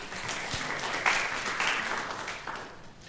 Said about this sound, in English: Um, all be very robust with that applause. Yeah. That's a good thing. That, that, had, that, that, last round had a little bit of golf tournament to it.